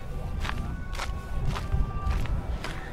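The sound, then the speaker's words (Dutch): Steady footsteps of people crunch along outdoors as they walk toward a monument, about five paces at an even walking rhythm, over a low rumbling wind-like background with no one speaking. “We lopen nu naar het eh, eigenlijke monument.”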